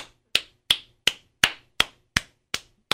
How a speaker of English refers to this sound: only one clapping.